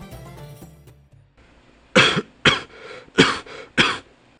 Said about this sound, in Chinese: 一阵咳嗽声。又再次打破了安详的画面。